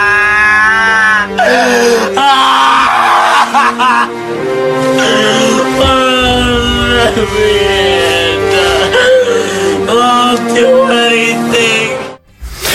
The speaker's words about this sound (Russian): А вот как бы он расплакался, если бы не получил в этом году Оскара. Прям сейчас можем и услышать. Вот как Леонардо Ди Каприо плачет. Плачет Леонардо Ди Каприо.